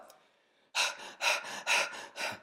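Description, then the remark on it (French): A voice imitates heavy, rapid panting, as of a runner out of breath at 14 km/h: six or so loud, breathy huffs in quick rhythm after a short quiet lead-in, forceful like someone out of breath. “Je suis essoufflé, très essoufflé je suis en train de vider à une vitesse encore beaucoup plus grande mes réserves de glucides.”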